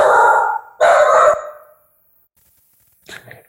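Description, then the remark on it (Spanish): A dog barks twice in quick succession, loud, with harmonic, slightly drawn-out barks, then after a pause lets out a shorter, softer yelp or whine. “Tenemos problemas técnicos con este, el perro de Judith, que de pronto también quiere participar.”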